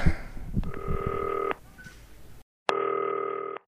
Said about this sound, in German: FaceTime-Telefon, ich leg den Hörer daneben, Mikrofon fällt um, aber das klingelt.